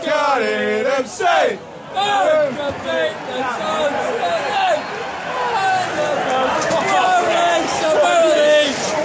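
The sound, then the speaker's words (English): A dense, lively crowd hubbub fills a football stadium bar at the back of the stand at half time, with a DJ playing, many overlapping voices chattering and calling out at once, loud and constant with occasional shouts rising above the babble. “We are at a bar at the back of the uh, at the back of the stand.”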